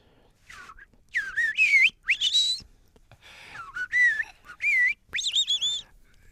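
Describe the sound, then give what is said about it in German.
A person whistles an imitation of blackbird song: a series of clear, warbling phrases that rise and fall, with brief pauses between them, moderately loud with no talking. “Also die Amsel, die entdecken wir immer. Genau. Die, die wie klingt?”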